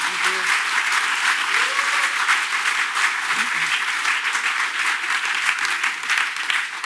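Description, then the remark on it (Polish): Sustained audience applause for the host at a book premiere event, a dense steady wash of many hands clapping at an even, loud level for several seconds, with faint voices murmuring underneath. “Chciałam bardzo podziękować y, prowadzącemu, który moim zdaniem wykazał się y, refleksem, inteligencją, wrażliwością, no i jednak czarujący młody człowiek, co Państwo no, sądzicie. Brawa!”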